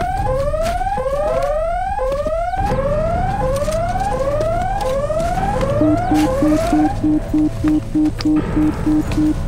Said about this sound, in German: Alarm! Satan greift an! Alle Mann auf Gefechtsstation!